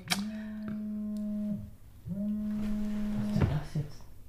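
A mobile phone vibrates with two long, steady low buzzes, each about a second and a half, separated by a short pause, followed by a few faint knocks and rustles.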